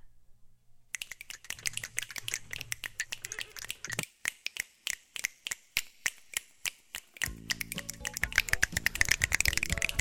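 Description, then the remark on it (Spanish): Claves struck by a female guest performer on a radio show, in a steady rhythm, sharp bright wooden clicks repeating without any voice, growing denser and busier toward the end over a low sustained tone. “Lo que usted acaba de escuchar fue nuestra invitada de lujo de esta noche”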